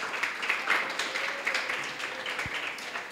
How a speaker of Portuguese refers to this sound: Aplaude aí ao Senhor mesmo. Aleluia.